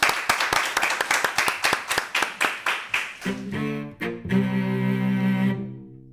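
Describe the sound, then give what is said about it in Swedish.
Steady, evenly spaced hand claps from an audience applauding at an event in Almedalen ring out for about three seconds, fairly loud, before a burst of music with sustained tones takes over and fades. “Vi applåderar publiken.”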